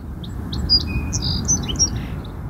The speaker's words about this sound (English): Oh, the birds again. These glorious birds.